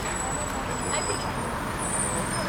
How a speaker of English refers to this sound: The school bus arrives. Secondary school children jump aboard and off they go to Blackwater Community School, Lismore.